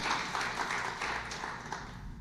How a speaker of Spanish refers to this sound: Ese es un aplauso.